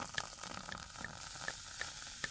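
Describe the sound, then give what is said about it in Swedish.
Steady fizzing hiss of champagne bubbling after the bottle is opened by twisting the cork, fairly quiet, with tiny crackling pops scattered throughout and no voices. “Jag håller den med höger hand under och så vrider jag med vänster hand runt korken.”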